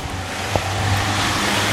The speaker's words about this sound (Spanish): A ver, Ahí va la furgoneta del pan.